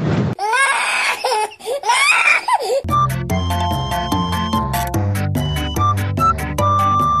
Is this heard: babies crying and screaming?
yes